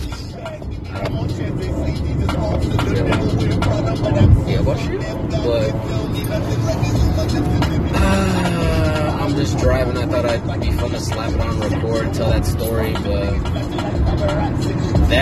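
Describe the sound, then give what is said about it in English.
Continuous highway traffic noise, a steady, loud roar of engines and tires that never lets up, with faint tonal, voice-like sounds drifting over the rumble. “Y'all probably heard a lot of the highway noises, and I guess I'm sorry, but at the same time, I'm not.”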